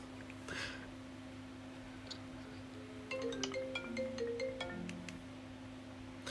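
A steady low hum runs throughout, then partway the ringing tone of an outgoing phone call on speakerphone starts up, a string of short melodic electronic tones at moderate volume, with no one talking.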